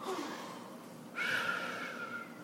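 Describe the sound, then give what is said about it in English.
A voice imitates a little girl's snore: a soft breathy intake, then a longer nasal, buzzing snore sound, moderately loud, with no other sounds around it. “She would close her little girl eyes and she would snore a little girl snore”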